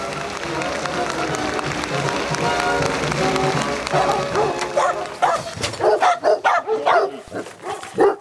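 A Finnish Hound bursts into a quick series of loud barks during the second half, following a dense, steady stretch of background sound.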